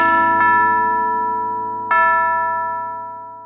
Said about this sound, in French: Tu ne les verras pas, elles partent sonner les cloches.